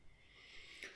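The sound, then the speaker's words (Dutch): A sleeping dog gives a faint, brief whimper and a muffled little woof, a single soft breathy sound against quiet background hiss, with no talking. The dog is dreaming that she is chasing another dog. “ze blaft dan heel zachtjes”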